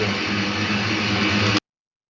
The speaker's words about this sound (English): That was Ken's vacuum cleaner.